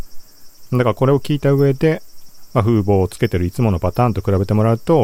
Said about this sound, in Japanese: まあ、これだけセミの音聞こえるものが、まあ、普段の感じぐらいには軽減できているってことになります。